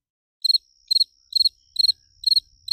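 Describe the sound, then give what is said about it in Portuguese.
A cricket chirps in a steady rhythm, six evenly spaced bursts of rapid, high-pitched trills, clear with no voices. “Cadê, cadê, cadê o Grilo? Aqui, ó. Cadê o Grilo?”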